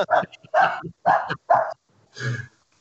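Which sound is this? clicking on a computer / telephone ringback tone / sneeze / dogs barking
dogs barking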